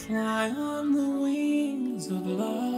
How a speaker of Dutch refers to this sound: Ik wil even die autotune laten horen. Je kan dat heel goed horen, dat de toonhoogte klipt. Ik noem dat klippen. Die verandert onnatuurlijk van toonhoogte. Luister maar eens.